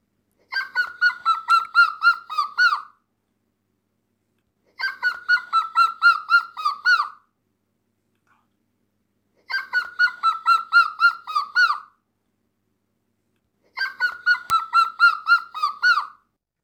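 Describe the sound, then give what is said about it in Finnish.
A nine-year-old child imitates a grey-headed woodpecker's warning-like call, giving four separate runs of about ten rhythmic, mid-pitched whistled notes that gently fall and slow, each run followed by a few seconds of silence. “Tunnen kyllä lajinkin. Joo, joo tosta. Harmaa päätikka.”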